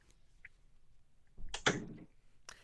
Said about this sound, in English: Close the door, please. Thank you.